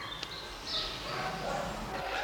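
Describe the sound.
A dog gives a few short, yappy barks over a steady background hiss, with a faint murmur of voices underneath.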